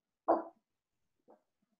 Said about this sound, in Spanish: Uy, tengo acá, se metió un perro acá al programa. El perrito, ¿cómo anda la Rita? ¿cómo está? voy a secar los perros, aguantame un minuto, ahí vengo.